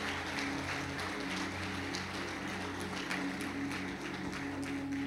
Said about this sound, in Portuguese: Fica de pé no seu lugar. Aplaude Jesus e dá um glória a Deus.